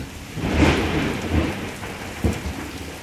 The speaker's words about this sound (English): The rain continues to pour down.